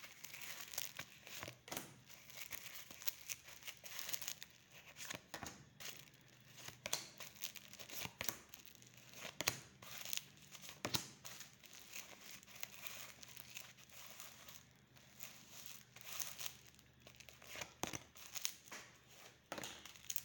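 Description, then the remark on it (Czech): Playing cards being shuffled: a steady run of papery rustling and soft crisp snaps, fairly quiet, lasting about twenty seconds with no one speaking. “Tak moment, eh, zamíchám karty.”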